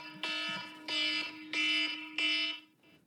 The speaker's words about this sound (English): That was my 20 minute timer, in case you were wondering.